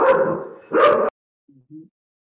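Two loud, close dog barks in quick succession, the first drawn out and the second shorter and sharper, followed by a couple of faint, low grumbling sounds before silence.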